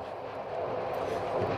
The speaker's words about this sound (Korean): 그렇게 기차는 출발했고 저는 그녀와 나란히 앉았습니다. 아, 이제 많이 어색하더라고요. 그쪽도 저도 말이 많은 편이 아니라서 우리의 귓가에는 어, 그저 기차 달리는 소리만 들렸어요.